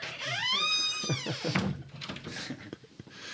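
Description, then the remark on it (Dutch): A door creaks open as someone comes in, with one drawn-out squeal that rises and then falls, followed by a few soft knocks and thuds, then quiet background noise. “Er komt iemand binnen.”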